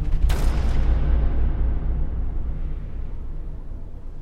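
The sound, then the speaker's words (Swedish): A single sharp rifle shot cracks out, followed by a long, heavy rumbling echo that rolls on and slowly fades away. No voices are heard. “Jag rycker till av den hastiga rörelsen och i en ren reflex höjer jag geväret och trycker av.”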